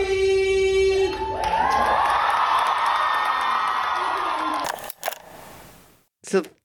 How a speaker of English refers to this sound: That was at, at a screening. The crowd. After the screening, the crowd is singing.